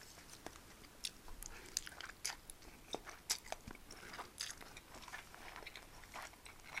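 Chewing and biting of crunchy food while eating a homemade lunch, a steady stream of irregular crisp crunches and mouth noises over about seven seconds, fairly quiet with no talking.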